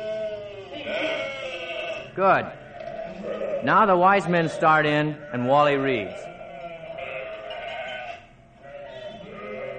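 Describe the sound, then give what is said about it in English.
Several people bleat like sheep, voices imitating a flock with a burst of wavering, overlapping baa sounds in the middle, while a man talks before and after them. “How about some sheep?”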